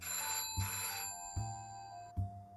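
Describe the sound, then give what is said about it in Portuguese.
A telephone rings with a bright, sustained electronic tone, with three low thumping pulses recurring at a steady rhythm beneath it. No one speaks. “As duas foram interrompidas por um telefone tocando.”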